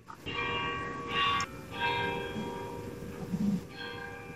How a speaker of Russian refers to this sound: сейчас на башне в Беркли играет украинский гимн «Ще не умерла Украина»